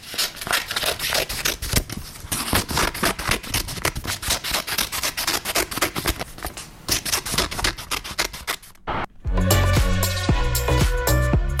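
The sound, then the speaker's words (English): Scissors cut through paper in a rapid, continuous run of crisp snips and rustles, loud, for about nine seconds before music takes over. “The answer was cutting paper with the scissors.”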